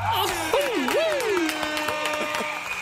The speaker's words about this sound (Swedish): En applåd och en tuta, här på det.